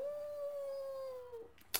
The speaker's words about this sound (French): Et là, tu vois un coyote euh, ou un loup qui hurle à la lune.